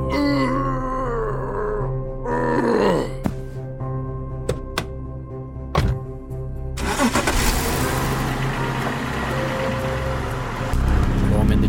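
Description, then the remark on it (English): A truck engine cranks with a rising, groaning whine, sputters through a few sharp bursts, then roars into a loud, rough rev that holds steady to the end. “and I lay on the gas and get out of there”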